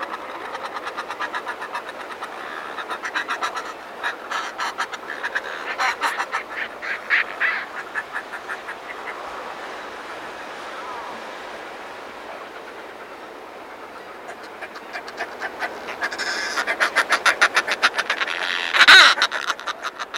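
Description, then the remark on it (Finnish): Harsh, guttural cackling and croaking from northern fulmars, at least three nesting pairs on cliff ledges, rising and falling in rapid rhythmic bursts, building to a louder chattering chorus near the end, with no talking. “Ja alapuolella sitten joka hyllyllä pesi lintuja ja aivan naapurilla tuossa pesi ja montakohan tuossa on, ainakin kolme myrskylintu paria ja ehkä hetken kuuntelemme, miten nuo myrskylinnut korisevat.”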